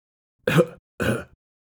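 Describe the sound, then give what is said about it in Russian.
Someone clears their throat twice in quick succession, two short, rough, gravelly bursts separated by a brief pause, imitating the wolf in Little Red Riding Hood clearing its throat before speaking in a thinner voice, with silence on either side and no talking. “Волк откашлялся и сказал потоньше.”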